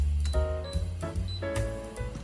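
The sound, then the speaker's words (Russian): A few sharp mechanical clicks, roughly three in a row about half a second apart, from a stove knob being turned on to medium heat, clear with a low steady hum underneath. “Теперь включаю плиту на средний огонь.”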